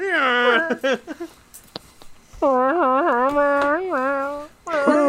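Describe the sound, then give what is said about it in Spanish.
A person imitates Chewbacca's Wookiee roar with loud, warbling howls whose pitch wavers up and down, delivered in several long bursts separated by short pauses, with no other sounds. “sigue diciéndolo, parece una llanta rechinando.”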